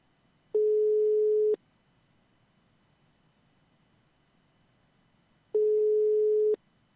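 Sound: telephone ringing tone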